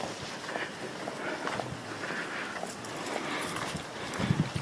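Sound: footsteps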